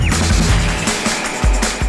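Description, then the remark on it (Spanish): Loud glass smashing with several sharp crashing impacts and scattered debris, heavy low thuds underneath, all in under two seconds and with no voices. “¿Los cristales?”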